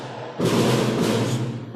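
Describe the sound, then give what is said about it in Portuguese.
A sudden firework-like bang bursts in, loud, then lingers as a broad, rumbling crackle that slowly fades; no one speaks. “tomei um susto aqui, soltaram uns fogos de artifício quase. Deu um gelo no meu coração aqui.”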